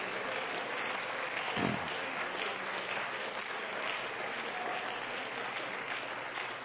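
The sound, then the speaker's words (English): A large audience claps steadily in praise to God before being seated, a dense, continuous wash of many hands at a fairly even volume throughout, with no one speaking. “Now let's give him one more hand clap of praise before we are seated.”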